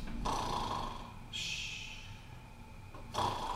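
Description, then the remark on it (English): A voice mimics the loud snoring of a man in his 60s in the back row during a sermon: three rough, rasping breaths in a row, the first and last inhaling with a nasal rumble and the middle one a hissing exhale, fairly loud. “Like so loud and somebody is snoring now.”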